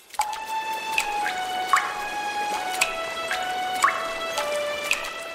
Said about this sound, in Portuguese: Ah, isso sim é água! E soa muito musical, não acha?